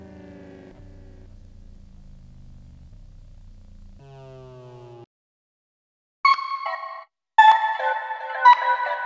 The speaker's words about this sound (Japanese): その時今の彼女から電話がかかってきた